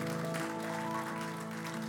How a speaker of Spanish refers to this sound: ese aplauso fuerte a Cristo porque Él es bueno.